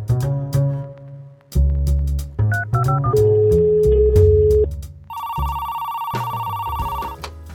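A telephone rings: a short electronic melody plays, then a steady, bright ringing tone holds for a couple of seconds, loud, with no one speaking.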